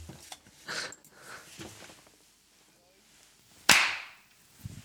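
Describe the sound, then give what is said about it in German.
A single sharp, loud hand clap, made to sync audio for a recording, sounds with a brief ringing tail, preceded by soft murmurs and rustling. “ja, warte, wir müssen nochmal klatschen.”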